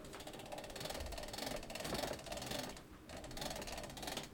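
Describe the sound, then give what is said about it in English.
A hand crank winds a phonograph spring, making a steady run of rapid ratcheting clicks in repeated bursts with brief pauses between turns. No one speaks. “We start her up. You can feel the springs turning.”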